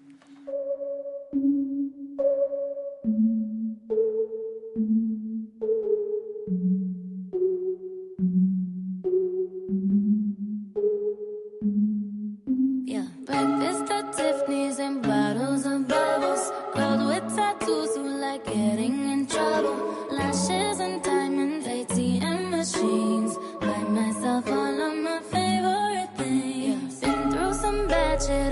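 A pop song plays loudly with no one talking over it: a sparse, repeating two-note synth pattern opens, then a full beat and dense production kick in about halfway through.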